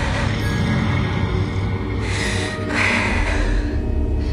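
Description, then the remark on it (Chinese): Loud, heavy snoring in a house, with rough, rasping breaths rising and falling in a slow rhythm over a constant low rumble. No voices can be heard. “呼噜的声音已经十分的清晰，并且巨大，让雪梨心生厌恶。”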